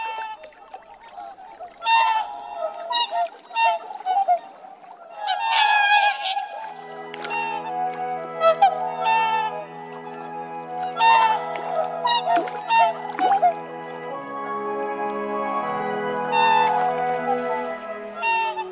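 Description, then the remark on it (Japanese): A flock of whooper swans at Lake Furen on the Nemuro Peninsula, Hokkaido, Japan, in December calls continuously, loud bugling honks overlapping from many birds, with steady low tones underneath and no clear pauses. “今朝は北海道根室半島の風蓮湖から大白鳥の声をお届けしました”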